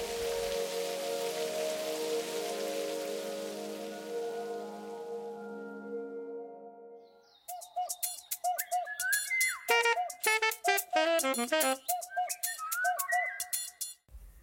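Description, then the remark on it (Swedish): Heavy pouring rain gives a steady, dense hiss for about seven seconds, with low sustained tones beneath it, then gives way to a burst of bright, rapid whistling chirps. “Då kom regnet. Hällregnet.”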